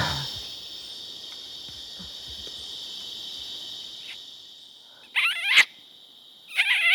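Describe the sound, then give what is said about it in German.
A steady high insect drone fills the background, then near the end a man lets out two loud, short, squeaky calls with wavering pitch to lure orangutans. “Diese Geräusche macht er Mus, um die Affen anzulocken.”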